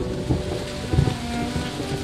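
A thunderstorm in the middle of the night: steady heavy rain hisses throughout while deep, rolling thunder rumbles underneath, swelling briefly near the middle. No voices are heard.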